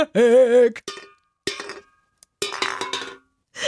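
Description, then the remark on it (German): Hollow metallic taps on an empty Spezi soda can, a handful of fairly loud strikes with a brief ringing tone, spaced irregularly with pauses between them. “Ich eine leere Spezidose.”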